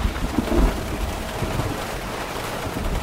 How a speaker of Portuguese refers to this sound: Em poucos minutos, os pingos se tornam um temporal.